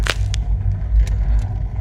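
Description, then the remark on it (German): A sharp whoosh of a projectile in free flight cutting through the air at the start, followed by a few fainter swishes over a low, steady rumble. No one speaks. “Das Geschoss, es befindet sich im Freiflug. Es zerschneidet Luftpartikel.”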